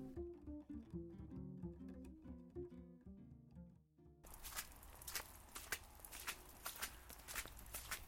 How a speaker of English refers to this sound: As farmers in the Pacific Northwest, I bet you recognize this sound. Walking the pathways between rows in the off season, trying not to get a boot stuck in the mud. This is a chronicle of soil on those wet winter days.